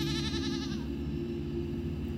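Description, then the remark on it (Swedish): A single wavering goat bleat lasting under a second, set over a steady low droning rumble that continues after the call fades. “Åker man igen på ett mindre djur, en get till exempel, kör man in en stång i ändan på geten så att alla ska få plats.”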